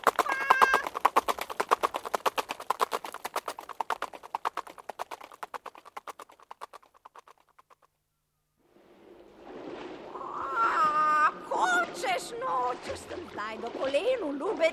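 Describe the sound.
A hen gives a rapid, steady stream of clucking that gradually fades out, followed after a short pause by people talking over some higher chirpy sounds.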